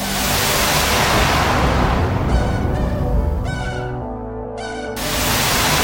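A short, loud opening theme jingle of the radio show Les artistes ont la parole: bright horn-like tones blare in a few bursts over a wash of noisy sound, then cut off abruptly as the noise swells back.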